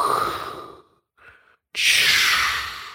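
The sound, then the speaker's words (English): Slow, deep breathing with a rushing, ocean-like hiss: a long breath fades out, a brief quiet pause, then a loud breath swells in and slowly trails off. “I don't know how it sounds on the mic, but uh, so basically, so, it's like it's like that sound of the ocean kind of going,”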